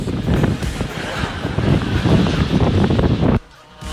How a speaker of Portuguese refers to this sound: Ah, nem tá ventando tanto lá, então.